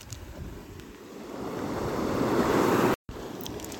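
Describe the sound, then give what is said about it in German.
Waves wash up on a stony beach beside a small cliff, a steady hiss of surf that swells gradually louder over a few seconds, with some wind rumble and a brief cut near the end. “Naja, jetzt sitzen wir hier auf diesem steinigen Strand.”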